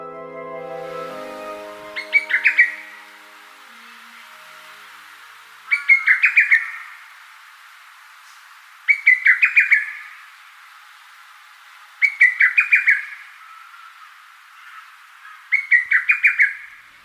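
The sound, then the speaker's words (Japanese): A lesser cuckoo calls in the morning from the woods of Rikugien, a Japanese garden in Bunkyo, Tokyo, five times at steady intervals, each a quick, rising string of bright whistled notes, clear, over a soft background hush with no talking. “東京都文京区にある陸義園和歌の好きなお殿様がこだわって作った日本庭園ですその森の中から万葉集で最も多く登場する鳥ホトトギスの鳴き声が聞こえてきました”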